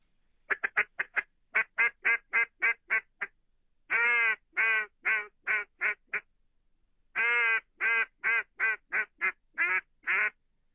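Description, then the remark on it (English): A wooden duck call, about 20 years old, blown in a series of soft, quick, mellow quacks, grouped in three runs with short pauses between, each quack clipped with no echo; no one talks. “Now here's the little soft call that th- this call here that kill a put a bunch of ducks in the water.”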